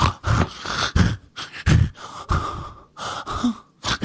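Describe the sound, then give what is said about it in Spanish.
A voice imitates a mother's labored, wheezy breathing heard at night: a rapid series of harsh, raspy gasps and snorts in irregular bursts, fairly loud, with no words spoken. “Como que ya no podía respirar, pobrecita, güey.”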